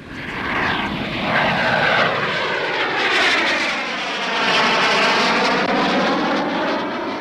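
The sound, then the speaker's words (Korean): A loud airplane roars overhead near Incheon Airport, its broad engine rumble swelling and holding steady with sweeping, shifting tones as it passes low, with no voices. “어, 바로 이번 주에는 인천공항 근처에서 여러분의 신청곡을 전해드리도록 하겠습니다. 그렇다면 뭐 비행기 소리가 좀 나을 것 같아요.”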